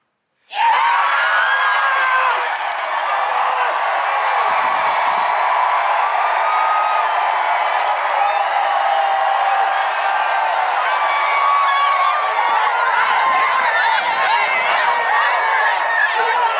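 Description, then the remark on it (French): A large golf crowd at the green of hole 17 roars and cheers without pause after Carlota Siganda holes the final putt for the last point, a dense wall of shouting voices and whoops that stays loud and steady for the whole stretch. “on était sur le, green du 17 quand Carlota Siganda justement a rentré cet ultime putt, cet ultime point avant que tu réagisses, on va vous embarquer dans ce trou numéro 17 et vous faire écouter l'ambiance qu'il y avait.”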